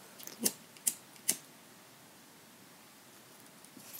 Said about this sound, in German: Im Moment schneide ich erstmal nur den Reißverschluss auf die passende Länge. Das heißt einmal die Länge von der, von der Tasche.